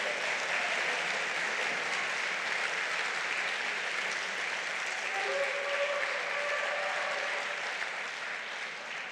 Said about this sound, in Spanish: Y un fuerte aplauso.